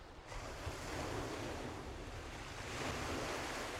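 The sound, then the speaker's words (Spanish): Ocean waves crash steadily against rocks below a seaside cliff, a continuous roaring surf with broad wash and low rumble, swelling slightly toward the end, with wind noise in the background and no voices. “Sientes el rugido de las olas chocando contra las rocas.”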